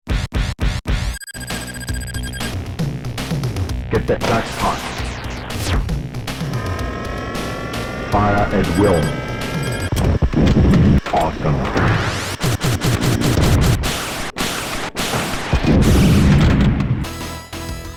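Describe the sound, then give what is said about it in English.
Busy sound effects from a pinball machine made as the tie-in game for a big action movie release: electronic tones, booming hits and crashing clatter pile up nonstop, while a loud recorded voice shouts short game callouts over the din. “and then, of course, they had a as with any, almost still to this day, any big action release, you have the coordinating pinball game to go with it.”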